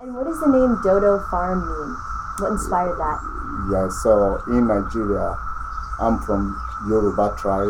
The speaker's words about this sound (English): That sound you hear in the background is millions of cicadas singing around us.